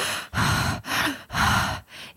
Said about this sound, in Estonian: ma käisin biodünaamilises hingamises äh, oma hea sõbranna juures, et kus siis sa hingad sihuke hästi äh, sügavalt suu kaudu.